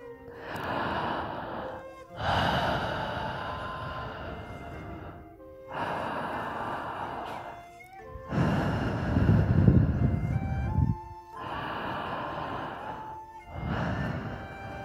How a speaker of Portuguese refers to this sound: Sente-se num lugar seguro, tranquilo, Respira profundamente, faça a respiração.